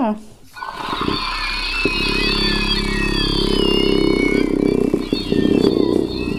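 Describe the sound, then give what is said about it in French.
A shrill mandrake scream sound effect: a loud, piercing, wavering shriek that holds for about six seconds without a break, with a low rumbling layer underneath. “les mandragores, est-ce qu'elles hurlent aussi comme dans les films Harry Potter”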